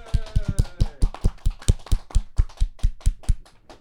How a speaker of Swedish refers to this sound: Så vi ger henne en stor applåd. Hela Malmö, kom igen!